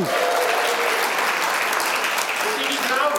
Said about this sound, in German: Für meine Frau haben wir jetzt geklatscht, genau.